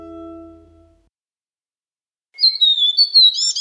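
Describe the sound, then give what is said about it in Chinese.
A sisil omen bird calls with a quick run of high, thin twittering chirps, clear and fairly loud, arriving after a low steady hum fades out and a stretch of silence. “你听，是希利克的声音。他说我们今天会有好运哦。”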